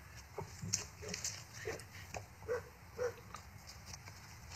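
A dog barks in a quick irregular series of short yelps while chasing, over steady outdoor background noise with no one speaking.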